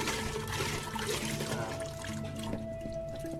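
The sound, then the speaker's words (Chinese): Rice wine is poured for cooking the Chinese dish jiumentou, in a steady, continuous stream, a bright splashing trickle that holds for several seconds, with faint sustained tones humming underneath. “倒下去完了，我们再放一点中草药，叫做辣薯。”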